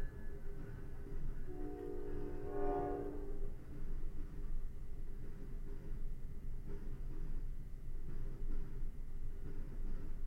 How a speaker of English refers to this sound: There's the train again. Maybe some of you who don't have trains near you, maybe it's interesting, maybe it's pleasurable that you hear a train.